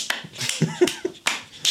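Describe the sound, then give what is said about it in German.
Several sharp finger snaps or hand claps ring out at irregular intervals, each a crisp, bright crack with a short decay and quiet gaps between. No one speaks. “Und ich habe jedes Mal trotzdem eine Klatsche in der Aufnahme gefunden, weil wir immer rumspacken. Oder ich sitze einfach da und mache so.”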